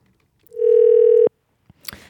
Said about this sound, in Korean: 그러면요, 궁금하니까 전화 한번 걸어보자요.